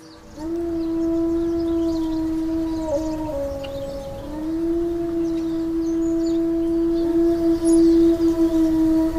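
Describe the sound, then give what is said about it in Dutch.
A wolf howls in one long, steady, drawn-out tone with a slight dip in pitch midway, sustained and clear for the whole stretch against faint background hiss, with no voices. “Wat een geluid, hè? En sinds kort, of sinds een paar jaar terug te horen in België, want de wolf is terug in ons land.”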